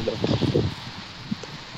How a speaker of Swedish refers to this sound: Det det med lite vind i bakgrunden.